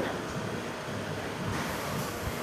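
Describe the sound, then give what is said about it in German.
Printing machines in a print shop rattle and hum steadily, a continuous mechanical clatter with soft low thumps, moderately loud and unbroken, with no voices over it. “Und hier hört man schon ein bisschen rattern.”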